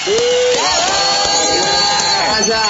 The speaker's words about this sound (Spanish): Un aplauso. ¡Bravo!